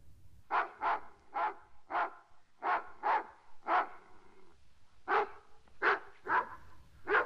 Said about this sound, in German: Ruf deinen Hund zurück, sonst muss ich ihn erschießen. Schon zog der goldene Jüngling seine Pistole und richtete sie auf den großen Hund, der fauchend und bellend immer näher kam.